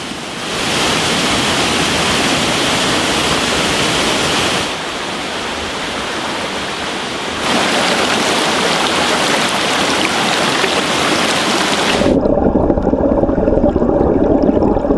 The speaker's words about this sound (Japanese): 今朝は名水百選小白川渓谷の涼しげな音色